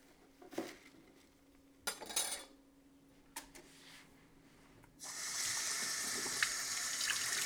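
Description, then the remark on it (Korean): A few short clinks and rustles of kitchen handling, then a steady hiss of tap water running into a sink for the last few seconds as enoki mushrooms are washed for cooking, fairly loud, with no talking. “씻어가지고.”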